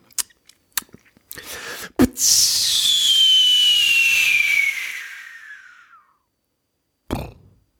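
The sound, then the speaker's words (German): A voice mimics a firework rocket: a few clicks and pops for the ignition, then a long whistling tone that slides downward over about four seconds, followed by a brief burst near the end. “ich kann, kann keine Raketen. Der … kann das. An der Explosion am Ende muss nur arbeiten, aber ich finde das Anzünden und Wegfliegen finde ich großartig”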